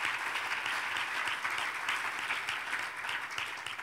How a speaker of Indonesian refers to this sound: Ya, berikan tepuk tangan jangan ragu-ragu.